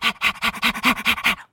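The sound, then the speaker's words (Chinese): A dog pants quickly in about seven loud, even breaths mixed with whiny, whimpering tones, with no talking, then stops abruptly. “这个是刚刚那只大野狼的叫声吗？怎么好像突然变成小狗？”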